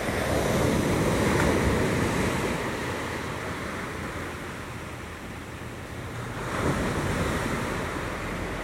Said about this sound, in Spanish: regresamos aquí a escuchar el mar con Zoro. Vamos a escuchar el mar varios segundos.